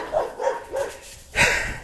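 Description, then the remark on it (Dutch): Several guard dogs bark repeatedly in the background, a quick run of three or four yips followed by a louder, harsher burst of barking, all somewhat faint and outdoors-sounding. “Er zijn hier heel wat waakhonden. En als je langs een huis loopt, dan eh, willen ze elke keer weer aanslaan.”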